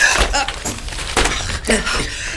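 A briefcase hits the floor with a solid thud, followed by a flurry of papers rustling and scattering, with a few more soft knocks and shuffles.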